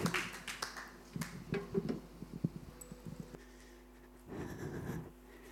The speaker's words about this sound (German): Komm, lass uns ihr nochmal einen herzlichen Applaus geben.